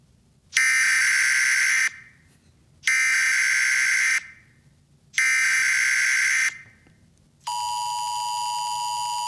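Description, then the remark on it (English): A loud, harsh electronic emergency alert test tone blares in three long bursts of about a second each with short gaps, then switches to a steadier, purer tone that holds to the end. No one speaks. “Remember, that's just a test.”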